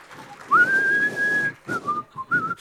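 A person whistles a short song melody, starting with a long sustained note followed by a few shorter phrases, breathy and clear with no talking.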